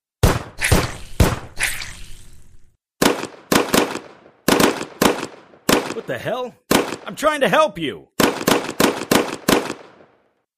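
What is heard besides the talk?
gunshots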